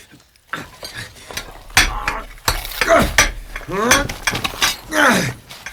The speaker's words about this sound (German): Wir meißeln ein Luftloch. Wenn ihr eure Rauchbombe hier reinschmeißt, brauchen wir doch Sauerstoff.